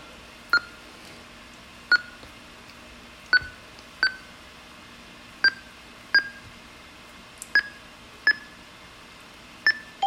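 A series of about eleven short, clear electronic beeps from computer software signalling that a process has finished and an audio file is ready, at a mid-high pitch, spaced irregularly roughly a second apart, over a faint steady hum with no talking.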